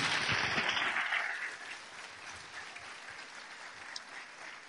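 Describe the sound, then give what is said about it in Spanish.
An audience at a broadcast Sunday church service applauds for those watching the transmission, a dense burst of clapping that is loudest at first, then eases into a lighter, sustained patter that trails on steadily to the end. “Ese aplauso es para ustedes.”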